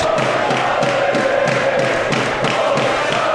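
A loud, steady rugby match crowd roars throughout, getting behind Leeds as Leeds attack the Wigan line, with a rhythmic pulsing swell of chanting or clapping repeating roughly every third of a second, and no clear speech.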